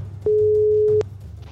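A single steady ringing tone of an outgoing phone call to someone at Schiphol airport, one loud mid-pitched beep lasting under a second, over a low background hum with no talking.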